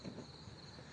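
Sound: insects chirping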